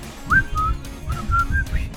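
A person whistles a short jingle melody, several clear sustained notes rising and gliding in a bouncy phrase, fairly loud, with some low background rumble and no speech.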